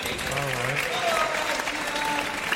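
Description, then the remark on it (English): A live audience claps steadily throughout, a dense, sustained wash of applause with a few voices calling out and cheering over it. “Round of applause, please, for”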